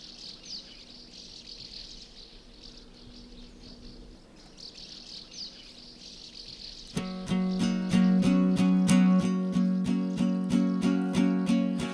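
Birdsong and chirping over a soft outdoor ambience, then at about seven seconds a loud, steady musical intro kicks in with regular rhythmic strums and sustained tones.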